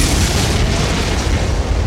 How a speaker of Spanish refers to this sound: Durante 25 segundos los pitufos son aniquilados por aviones de combate.